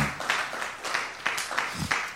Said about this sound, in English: How many of you love the word anyway? Amen. Give the Lord a hand clap then. Praise God.